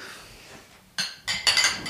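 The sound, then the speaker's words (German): Several bright glass clinks ring out in quick succession, fairly loud, as glasses of a sparkling strong beer touch in a toast, with a soft background hum before the first chime. “Chin Chin.”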